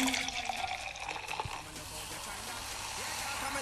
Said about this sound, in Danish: Den skummer dejligt, vil jeg sige. Ja. Så har jeg lige et lille vinglas, vi lige øh, hælder op i. Dejlig skummende.